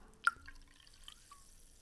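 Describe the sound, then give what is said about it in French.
Sparkling water being poured into a glass very, very close to the microphone as improvised ASMR, quiet and delicate: a sharp liquid plink, then faint fizzing with a few small bubbly pings and drips, no voices. “Martin est en train de verser de l'eau pétillante dans un verre très très près du micro.”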